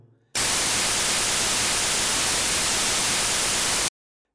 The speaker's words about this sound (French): À l'opposé, à droite, le bruit blanc,